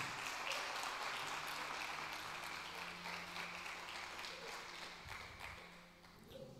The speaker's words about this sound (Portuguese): Amém? Você pode dar uma salva de palmas a Jesus por isso?